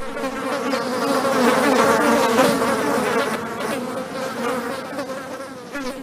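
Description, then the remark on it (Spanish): Flies buzz continuously in a steady, droning hum that wavers slightly in pitch, fairly loud throughout with no voices present, at a place with discarded food scraps and stagnant water. “Además, las moscas, zancudos y ratones no paraban de llegar al lugar, pues los restos de comida que arrojaban y el agua estancada los atraía a buscar alimento y donde reproducirse.”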